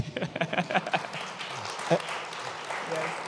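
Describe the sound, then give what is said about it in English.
An audience claps for themselves for their fundraising for the community of Namaemba, a brief burst of sharp, rapid clapping that soon softens into a scattered, fading patter, with faint voices murmuring underneath. “Just clap for yourselves for that.”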